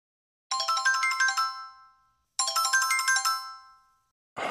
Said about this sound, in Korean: 어느 날 모르는 번호로 전화가 왔다.